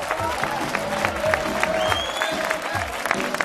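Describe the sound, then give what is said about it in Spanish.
A studio audience gives steady, dense applause as a band and its new female singer are introduced on a show. Many hands clap in a continuous rapid patter, with some faint whistles or cheers mixed in, holding at an even loud level throughout. “¡Aplauso!”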